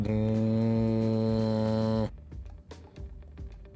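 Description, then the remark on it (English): A person hums a low, buzzing drone, imitating engines spooling up. It holds steady and loud for about two seconds, then cuts off into quieter background noise. “You just hear this like very low, just hum start to build.”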